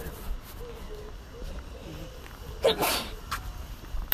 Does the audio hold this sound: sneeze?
yes